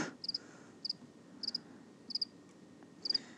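A lone cricket chirps in short bursts of two or three quick trills, repeating at a steady pace over a quiet, hushed background with no voices.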